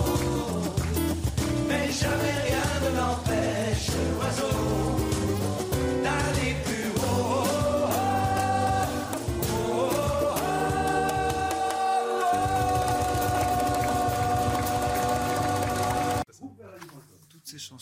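A French pop song plays loudly, with a sung vocal line over bass, chords and steady rhythm, then cuts off abruptly near the end, leaving a brief near-silence.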